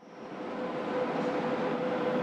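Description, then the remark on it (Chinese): A train from Urumqi to Chongqing runs along the rails with a steady, dense rumbling roar that swells slightly at the start and holds even, a thin faint whine threading through it, with no voices. “等啊等啊，女朋友吴俏终于踏上了乌鲁木齐到重庆的火车，冯涛心花怒放。”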